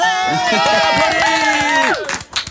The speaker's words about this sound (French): C'est pas en public, mais on s'en fout, on a des enregistrements d'applaudissements, écoutez ça.